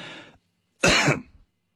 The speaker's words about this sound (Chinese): 我得先咳嗽一下，然后计时，开始算次数嘛。我先咳嗽一下啊。